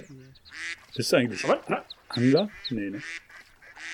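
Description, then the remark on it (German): Ducks on the water call in a few loud, nasal honking bursts as grains are thrown into the water for them, while people talk over and between the calls. “Dann kann ich die nochmal ein bisschen ins Wasser schmeißen für die kleinen Entenkühe.”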